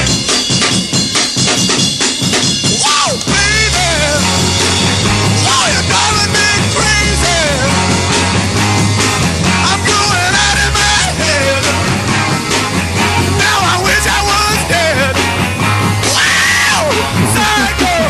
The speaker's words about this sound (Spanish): hay gritos de verdad es en el, en el garaje, en el rock de los 60 más, más sucio